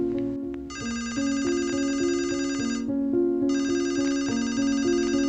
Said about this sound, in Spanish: El sonido de su teléfono interrumpió sus pensamientos.